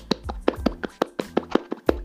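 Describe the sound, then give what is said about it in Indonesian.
Hands clapping in a quick, uneven burst of sharp, crisp claps, about a dozen in two seconds, with no voices over them. “Tepuk tangan dulu.”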